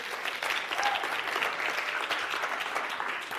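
A crowd applauds steadily, many hands clapping in a dense, even wash of sound that holds at a fairly loud level throughout without pause.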